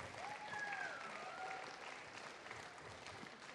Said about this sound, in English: Oh, wow, look at that. A little clapping.